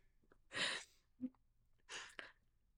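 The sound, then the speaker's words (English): Someone blows their nose twice, two forceful, hissing bursts of air separated by a brief pause with a small snuffly sound in between. “This is why I don't blow my nose in front of you.”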